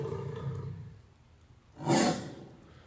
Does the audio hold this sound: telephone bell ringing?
no